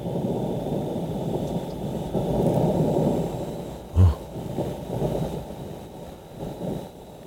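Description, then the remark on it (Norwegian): A low, rumbling whoosh of wind recorded on Mars buffets steadily for several seconds, with a brief louder thump near the middle, then eases back into a muffled, hollow roar. No voices. “Ja, så der så, er lyden på Mars.”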